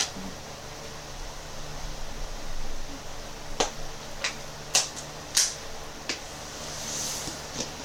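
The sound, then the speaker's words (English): Thin plastic crackles in a handful of sharp, irregular pops and crinkles, like a water bottle being squeezed, over a steady background hiss with no talking. “Yeah, you're squeezing that really thin plastic”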